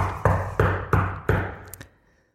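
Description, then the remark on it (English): Four firm, evenly spaced knocks on a door ring out, each with a hollow wooden thud, followed by a lighter fifth tap as the sound fades into quiet. “And it's not a knock of urgency, it's a knock of expectancy.”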